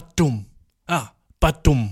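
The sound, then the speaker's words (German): A voice imitates a door slamming shut behind the speaker: two quick, punchy vocal thuds, a short exclamation, then the same two-beat thud again, with silence in between. “dass die Tür, die hinter mir zufällt”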